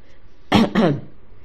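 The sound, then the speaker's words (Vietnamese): A quick two-part throat clearing by a man pretending to clear his throat to make a noise: two short raspy bursts back to back, loud against an otherwise quiet background with no talking. “hắn giả vờ hắn giọng gây ra tiếng động”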